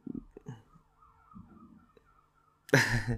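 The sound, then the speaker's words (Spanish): A police or ambulance siren wails faintly in the background, its pitch rising and falling steadily, before a loud voice abruptly breaks in at the very end. “disculpen el sonido, disculpen el sonido de fondo, eh, está sonando una sirena de la policía. Eh, a lo mejor es una ambulancia.”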